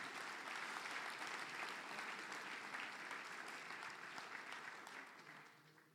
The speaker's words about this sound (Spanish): Démosle un aplauso al Señor, hermano. Denle un aplauso al Señor.